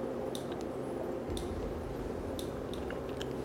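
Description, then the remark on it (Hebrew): Soft, wet mouth sounds of a woman sipping water from her cup in the morning, with a few small swallowing clicks and slurps spread over a few seconds against quiet background noise. No one speaks. “אני לוקחת לעצמי את הרגע הזה, מול המים, אני אומרת תודה על המים שנותנים חיים, הכוס שלי, אני אומרת, תודה רבה, תודה על המים שנותנים חיים, פשוט. לוקחת שלוק.”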